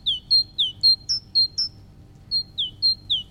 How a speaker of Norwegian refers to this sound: Eh, det er Tittu, Tittu, Tittu. Ja. Det er jo en kjøttmeis. Det er kjøttmeis, ja. helt riktig.